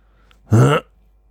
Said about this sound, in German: Also irgendwie geht das gerade um, ne? Mit dem ja. Räuspern und so, das ist furchtbar. Ja. Und wir haben immer noch keine Räuspertaste.